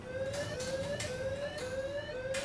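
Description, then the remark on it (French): An alarm blares steadily at an embassy as a man climbs its gate, its piercing electronic tone rising in short repeated sweeps about twice a second, loud, with no voices over it. “Au même moment, une alarme retentit.”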